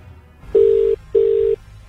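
Two steady ringback tones of an outgoing phone call placed on air to a man riding a bus, each lasting about 0.4 seconds with a short gap between, heard clearly over a faint low background hum.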